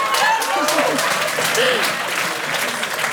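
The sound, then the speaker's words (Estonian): Steady audience applause fills the whole stretch, a dense wash of clapping hands at fairly loud level, with faint voices murmuring underneath. “Äh, see väärib aplausi minu meelest.”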